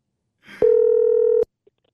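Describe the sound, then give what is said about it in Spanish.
A telephone tone as a call is dialed: a brief rustle, then one steady, mid-pitched electronic beep holding for under a second before cutting off abruptly. No one speaks. “Márcale, por favor, papuchón.”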